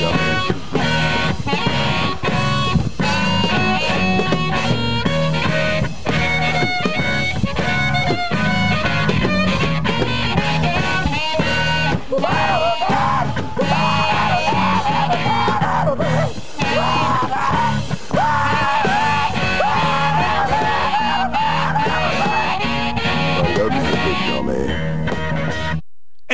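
A loud, dense blues rock song plays throughout, with raw shouted vocals riding over driving guitars, bass and drums, ending abruptly.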